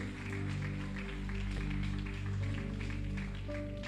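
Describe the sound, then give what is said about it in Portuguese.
An audience applauds together in a steady, dense wash of clapping that lasts the whole stretch, over soft, sustained keyboard chords, giving a round of applause to the Lord Jesus. “Você pode dar um aplauso ao Senhor Jesus.”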